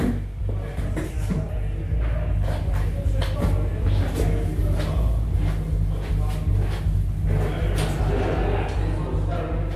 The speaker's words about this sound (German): Ich stelle meine Mikros auf, verschiebe die Stühle und warte.